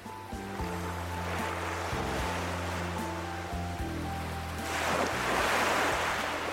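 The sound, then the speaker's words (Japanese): Ocean waves rush and hiss steadily, with a low droning hum like a boat engine underneath; a larger wave swells up loudly near the end. No one speaks. “海の波の音”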